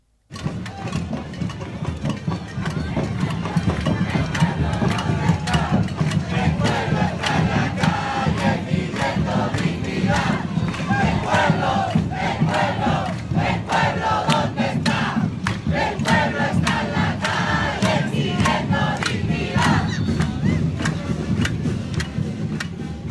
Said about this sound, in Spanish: Hasta que la dignidad se haga costumbre, gritan miles en la Plaza Italia.